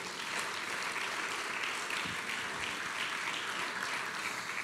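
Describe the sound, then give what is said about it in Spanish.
An audience at a church service applauds the Lord steadily, a dense wash of many hands clapping at an even, sustained loudness throughout, with no voices rising above it. “Del otro aplauso al Señor, por favor.”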